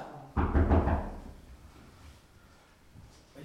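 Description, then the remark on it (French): A quick burst of several dull, heavy knocks on a door, fairly loud, then a soft fading resonance into near silence. “donc, vous êtes sourd Vous n'entendiez pas que je parotais devant la porte J'allais repartir.”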